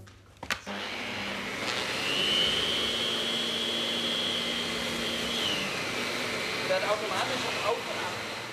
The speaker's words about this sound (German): Das ist ein Staubsauger mit einem Frosch drauf.